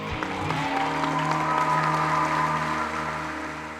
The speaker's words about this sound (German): Habt ihr es auch wieder klatschen hören? Richtig, die Flugzeuge.